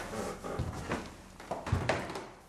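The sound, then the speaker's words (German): Old, sturdy wooden stair boards creak loudly and thud underfoot as someone climbs one floor up from an entrance hall, in a quick, uneven series of steps, each with a dull knock and a brief groan of wood, with no voices. “Die Treppendielen knarren zwar gefährlich laut, trotz ihres Alters aber sind sie stabil und geben zum Glück nicht nach.”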